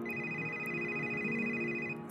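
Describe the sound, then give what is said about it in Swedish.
A telephone rings steadily with a bright, sustained electronic tone that holds for about two seconds, fairly quiet and alone with no talking. “När telefonen ringde.”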